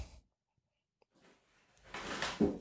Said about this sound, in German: Meine Katzen machen hier gerade mal ja. wieder ein bisschen Lärm. Vielleicht hört man das.